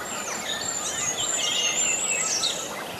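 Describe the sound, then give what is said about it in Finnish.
A Eurasian curlew calls from a field with rising, sliding whistled notes that carry on steadily for the whole three seconds, amid a fairly busy background of other bird song and no talking. “Se on ollut mun, oli mun haave, että kuovi kuuluisi ja, ja nyt se sitten kuuluu.”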